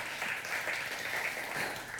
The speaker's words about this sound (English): Yes, clap that I can pay my bills.